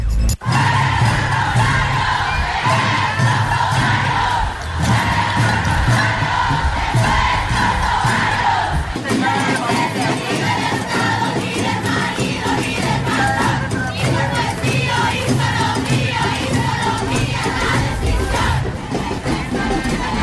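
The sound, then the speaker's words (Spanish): A large crowd at a protest march against feminicides, led by families of victims demanding justice, chants loudly and steadily for about twenty seconds. Voices overlap in rhythmic shouts with a sustained, dense roar of many people throughout. “Esto es eh, parte de lo que se escuchó ese momento.”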